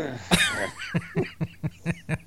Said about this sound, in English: Dude, look at that middle-aged man having to bend over. Wait, hold on, listen real carefully. You can hear him grunt as he bends over you, just watch, listen, listen closely.